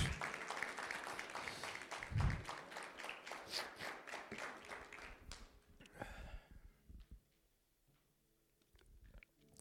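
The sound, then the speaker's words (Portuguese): An audience bursts into a round of applause for Jesus, a dense crackle of many hands clapping together for about five seconds before it thins out and fades to quiet. “Glória a Deus, é uma salva de palmas para Jesus.”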